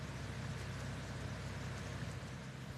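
A ferry's engine rumbles low and steady, with a continuous wash of churning water over it as the boat casts off from the dock bound for the island of Baltrum, carrying beehives; no voices, just constant machinery drone.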